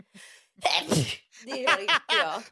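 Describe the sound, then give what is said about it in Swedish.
A sharp, loud sneeze preceded by a quick breathy inhale, followed right after by a short laugh and a person speaking a few words. “Det är första gången någonsin jag hörde en nysa på ett och ett Det var som bebis...”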